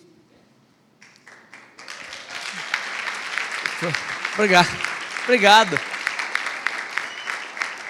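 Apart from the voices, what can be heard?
audience applause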